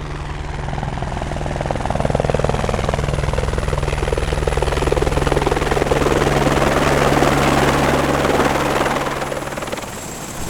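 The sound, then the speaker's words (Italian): A small but very powerful helicopter, a model that also reaches Everest, draws closer at Cervinia on a clear, windless day; its rotor chop thumps rhythmically under a loud turbine whine, the noise swelling steadily and staying strong before easing slightly at the end. “È un elicottero piccolo ma molto potente.”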